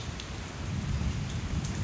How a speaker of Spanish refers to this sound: Pero entonces empieza a llover. Oh no, está lloviendo.